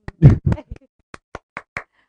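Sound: applause sound effect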